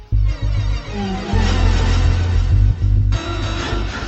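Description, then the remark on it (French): Loud, saturated bass drone with heavy distortion, thick low rumble pulsing in uneven bursts beneath a harsh, noisy fuzz that shifts texture near the end; no voices. “Donc je pense que c'est voilà, un son saturé, distorsionné, un peu dérangeant, qui peut euh, après euh, être à la limite de l'insupportable.”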